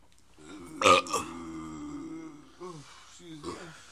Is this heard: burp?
yes